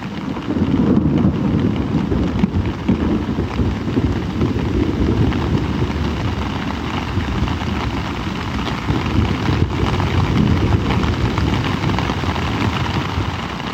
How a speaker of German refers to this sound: So um zwei Uhr nachts krachte da ein Gewitter vorbei, nicht direkt über uns, aber doch schon ziemlich nah.